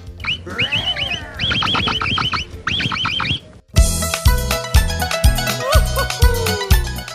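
Capybara alarm barks, made when danger is perceived, ring out in quick, repeated bursts of sharp, throaty calls for a few seconds before rhythmic music with a steady beat takes over.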